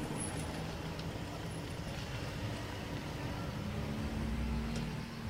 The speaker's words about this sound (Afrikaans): Dan sien hy sy juffrou se kar voor hulle huis stilhou.